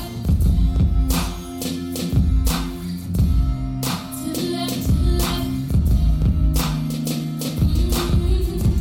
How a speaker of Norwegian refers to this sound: Og den gitaren vi hørte, den har du spilt. Ja, det er jeg som spiller. Det er jo spilt inn i studioet vårt.